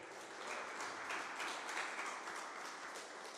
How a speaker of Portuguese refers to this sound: Agora só os lindos de Jesus aplaudam a ele bem alto.